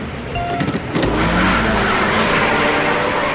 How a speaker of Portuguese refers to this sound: Escolha seu carro. Pise no acelerador e cuidado com a corredora de rosa, porque será dada largada para a nossa aventura.